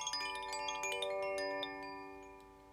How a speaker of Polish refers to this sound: A takim fenomenem życia może być właśnie dźwięk dzwoneczków koszy, Twoje odczucie, Twoja myśl.